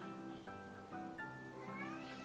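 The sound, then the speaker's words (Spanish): A cat meows continuously, with drawn-out, wavering harmonic cries that rise and bend in pitch, steady in loudness, with no talking over it. “Es un gato, déjelo ahí en su lugar.”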